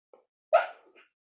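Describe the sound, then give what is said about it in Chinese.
A sleeping dog named Youtiao lets out dream noises while sleep-talking: a faint snuffle, then a sudden muffled yelp-like whimper that trails off into a soft, brief whine. No one speaks. “嗯、呃，如果大家有听到一个怪声，那是我的狗油条睡觉在说梦话。”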